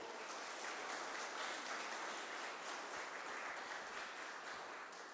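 A crowd at a Christian gathering applauds Jesus steadily, a dense wash of many hands clapping at once that holds strong for several seconds before easing slightly at the end.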